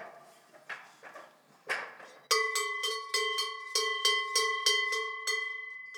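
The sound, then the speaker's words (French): A cowbell from Savoie, the kind hung one to a herd so it can be heard from afar, rings steadily, about eight bright clanging strikes with sustained metallic overtones, fairly loud, following a couple of seconds of soft shuffling and rustling. “Ça, c'est cloche de Savoie.”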